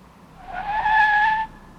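A single sharp screech of car tires as a vehicle turns, rising from about half a second and holding loud for nearly a second before cutting off. No voices.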